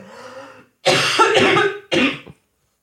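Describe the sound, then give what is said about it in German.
A short coughing fit: a throaty rasp, then a long harsh hacking cough and one more forceful cough, loud and raspy with no talking. “Äh, da kommt der Hut, Sekunde.”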